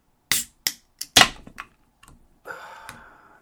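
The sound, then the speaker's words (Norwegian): A pils beer being opened: several sharp clicks and clanks of handling, then a short fizzing hiss as it releases, with no one talking. “jekke meg en eh, pils.”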